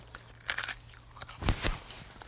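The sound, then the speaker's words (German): Crunching as a tiger nut is bitten, with a sharp crack followed by a few more crunchy chews, loud with no talking. “wie sich das anhört, wenn man so eine Tigernuss beißt, weil die knackt richtig.”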